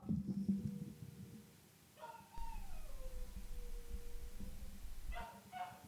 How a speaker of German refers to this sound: Und auf jeden Fall äh, heult der Hund die ganze Zeit. Scheiße, das gibt's doch nicht. Hört mal.